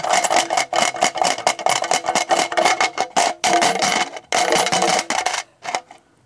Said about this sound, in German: Das sind Münzen? Ja. Äh, wenige Münzen in irgendeinem metallenen Gefäß, blechernen Gefäß. In einer Spardose.